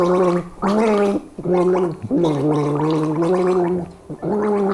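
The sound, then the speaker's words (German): The Christmas carol 'O du fröhliche' is gargled with water, the wobbling, bubbly tones carrying a slow tune in several sustained phrases with short breaks between them, loud with no talking. “Das ist Odo Fröhliche.”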